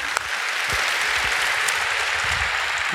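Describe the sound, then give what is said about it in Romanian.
Steady applause from a small group, a dense crackle of clapping that holds at an even, fairly loud level for a few seconds with no voices over it. “Să fiu fanul dumneavoastră și să vă aplaud.”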